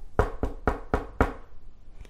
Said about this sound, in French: J'entends toquer à ma porte.